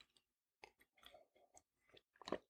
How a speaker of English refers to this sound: I sit with a coffee in front of me right now, which I'm going to take a sip of because coffee.